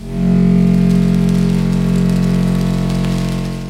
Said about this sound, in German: Der tiefe Ton kommt von einem Plastikrohr, das mit dem Kissen verkabelt ist. Dann beginnt sich der Schirm zu drehen und darüber gespannte Schnüre produzieren einen regenähnlichen Sound.